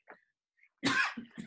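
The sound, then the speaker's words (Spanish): A sharp sneeze bursts out after a faint intake of breath, followed by two short, softer huffs as it trails off. No one speaks. “salud.”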